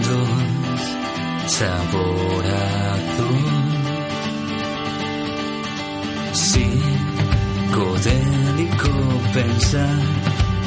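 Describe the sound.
An alternative rock song plays with a male voice singing over layered guitars and steady drums; the band swells fuller and louder partway through, with crisp cymbal crashes.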